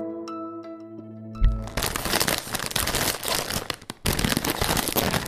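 After a brief tonal jingle, a conventional crisp packet is crinkled, loud and continuous, with dense crackling and rustling that keeps going to the end with a short pause near the finish.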